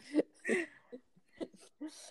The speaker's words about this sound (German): da guckt gerade einer ganz böse und fängt an zu husten.